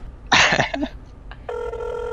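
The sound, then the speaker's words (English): A short, harsh burst of noise, then a telephone begins ringing with a steady electronic tone that holds to the end, moderately loud, with no one speaking. “Um, it just rings and rings.”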